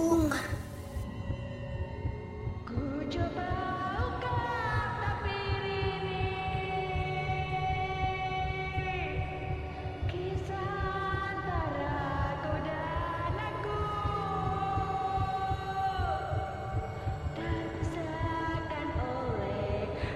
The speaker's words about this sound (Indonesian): Suara wanita yang bersenandung itu bernyanyi dengan nada yang fals sekali.